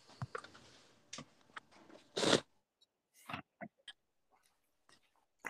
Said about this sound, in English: forgive any chewing you hear. I'm still eating dinner.